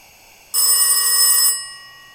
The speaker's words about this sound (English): The phone rings.